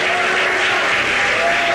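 Steady applause fills the whole stretch, a dense, even wash of clapping from a group with no pauses and no voices on top.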